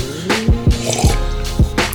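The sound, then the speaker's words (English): Someone sipping hot chai: several quick, wet slurping and gulping sounds with little downward-sliding bloops, fairly loud and uneven in rhythm, with no talking. “sipping on my chow. Sorry guys.”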